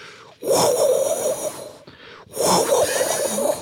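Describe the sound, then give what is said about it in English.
Someone vocally imitates a video game's whooshing flight sound effect, heard every time the character flies or accelerates: two long, loud, breathy rushes of air, each lasting over a second, with a short pause between them. “a gust of wind is just going past, going through the trees over and over.”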